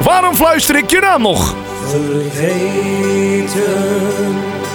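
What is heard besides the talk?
dutch pop song playing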